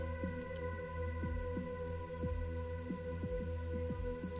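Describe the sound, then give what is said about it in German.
A steady, low heartbeat, representing the heartbeat of Mother Earth, thumps in paired beats over a continuous humming drone, deep and muffled, with no voices present. “Ja, du fühlst den Herzschlag von Mutter Erde.”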